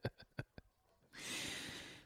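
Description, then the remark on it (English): A dog pants in four quick, rhythmic breaths, followed by a longer, steady breathy hiss. No one speaks. “If you hear uh, panting, that is the dog.”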